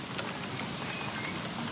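Steady rain patters down during an interview in a dense, even hiss with no breaks, faint scattered drops ticking through the wash of noise. No one speaks.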